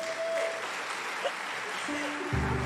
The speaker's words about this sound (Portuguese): Obrigada, Samara. Uma salva de palmas, Samara.